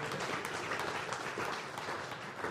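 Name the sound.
audience clapping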